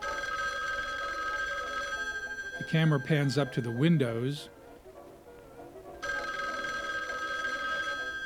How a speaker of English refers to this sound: The scene shifts to Goldie's empty apartment. There's a close up of a candlestick phone, and it's ringing.